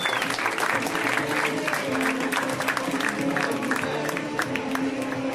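A comedy show audience applauds as comedian Brooks Wheelan is introduced, a dense wash of many hands clapping at an even loudness for several seconds, with faint cheering voices mixed in.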